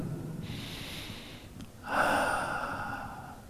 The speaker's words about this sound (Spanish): Bueno, debe ser una respiración suave